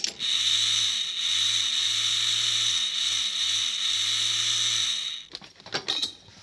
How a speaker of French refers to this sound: Voilà la grille. Passe-moi les outils. Tiens. Silencieusement. Merci. La si, La scie, voilà.